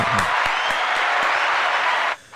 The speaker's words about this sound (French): Bravo, tu as un point, mon ami. Merci beaucoup. Bravo, tout le monde applaudit.